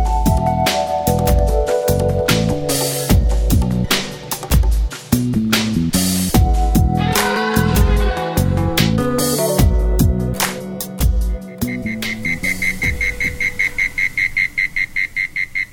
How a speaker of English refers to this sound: The sounds of insects on a warm spring evening is music to the ear of composer Meira Warshauer.